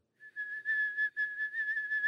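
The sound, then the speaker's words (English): A person whistles a steady, shrill single pitch for about two seconds, mimicking a boiling kettle, with slight pulsing in loudness and no talking. “My imitation is probably not as good as your kettle.”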